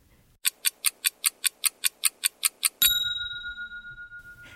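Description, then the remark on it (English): A lyrebird, a brown ground-dwelling bird of Australia, mimicking mechanical sounds: a quick, even run of about a dozen bright clicking pulses, then one loud ringing bell-like tone that slowly fades, clear. “The answer is the lyrebird.”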